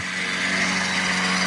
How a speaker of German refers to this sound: Oh, ich, ich würde sagen, wie so ein Flugzeug. So ein, so ein, so ein, so ein, was ist ein Ding, was so Zeugs auf, auf Äcker nee, sprüht. das ist kein Flugzeugmäuschen, das ist ein Rasenmäher.